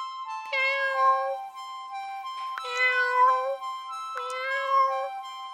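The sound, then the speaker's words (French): A ginger cat meows three times in a row, long drawn-out harmonic cries, each rising and wavering before trailing off, with no one speaking. “Et bah alors, qu'est-ce que tu racontes Ah, c'est Il est roux, c'est le petit curieux.”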